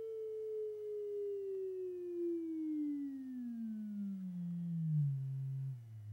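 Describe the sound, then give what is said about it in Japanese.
A steady electronic sine wave test tone glides smoothly downward in pitch over about six seconds, falling from a mid hum to a low drone, loud and alone with no talking. “では今度は続けてえー、音の高さを上げるとどうなるかちょっと見てみたいと思いますでは音の高さを変えてみますまず低くしてみます”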